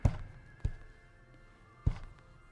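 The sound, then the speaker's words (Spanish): Someone locked in a room tries to open the locked door, producing three dull thuds at uneven intervals as the door is pushed or tugged without giving way, with quiet room tone between them. “Con el corazón latiéndome con violencia, traté de abrir la puerta.”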